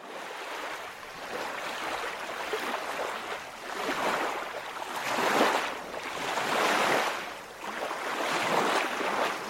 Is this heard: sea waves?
yes